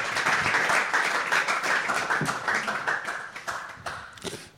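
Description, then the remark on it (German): An audience applauds at the end of a lecture, a dense wash of many hands clapping at a steady loud level that thins slightly toward the end, with a few sharper individual claps standing out. “Applaus”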